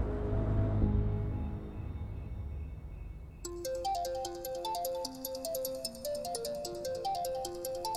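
A phone ringtone for an incoming call from a sister starts partway through, a bright repeating electronic melody of quick stepping notes that rings on steadily over a low, muffled background.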